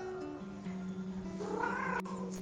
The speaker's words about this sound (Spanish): Y ahora ahí está, en una foto en la biblioteca, mirando como hoy hay tres en su lugar que no paran de maullar.